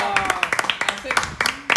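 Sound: applause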